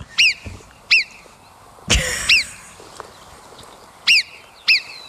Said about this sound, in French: a trouvé un son de marmotte. Écoutez bien ça.